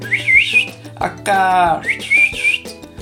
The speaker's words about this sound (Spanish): Antes de que Heidi o la tía Death pudieran responder, escucharon a Pedro, un niño que pastoreaba cabras en aquellas montañas, mientras silbaba y gritaba a sus animales.